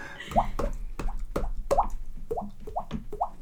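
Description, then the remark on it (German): A voice imitates the Skype conference call start jingle with a quick series of wet, popping mouth plops, about eight bubbly blips in a steady rhythm, clear. “Wenn wir die Telefonkonferenz bei Skype starten, dann macht das immer so dieses Geräusch.”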